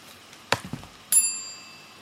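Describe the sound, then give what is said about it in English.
A few soft knocks and clicks, then a single bright bell strike, marking the end of a text read aloud, rings out clearly and lingers with a shimmering, slowly fading tone. No one speaks. “Well, that's another bell to say that's the end of the, the text.”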